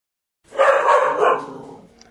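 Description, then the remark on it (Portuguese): The speaker's dog, Preto, lets out a loud burst of barking, two quick rough barks running together before trailing off, with no one talking over it. “Claro que o meu cachorro ia esperar essa hora para começar a uhum. fazer o show dele, né?”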